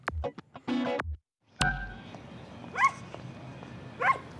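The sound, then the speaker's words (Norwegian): A dog barks twice, spaced about a second apart, over a steady noisy background, after a few short voice-like bursts at the start. “Neimen, det var en pen hund.”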